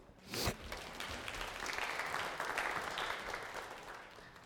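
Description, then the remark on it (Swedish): A short round of applause from a group, steady dense clapping that starts with a sharper burst and then holds at a moderate level, tapering slightly at the end. No one speaks. “Man kan väl få en liten applåd.”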